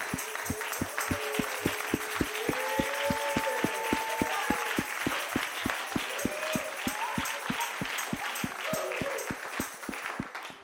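An audience, kids included, claps together in a steady, even beat of about three claps per second, sustained and fairly loud, with faint voices rising and falling underneath.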